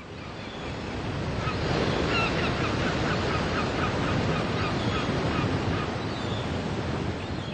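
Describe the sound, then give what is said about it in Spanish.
Steady roar of ocean surf washing onto the shore where the northern border wall meets the sea, loud and continuous, with faint honking calls of geese or seabirds scattered above the rushing water. No one speaks. “Y si te acercas a él y cierras los ojos, no solamente vas a poder oler al mar, sino que también vas a poder escucharlo.”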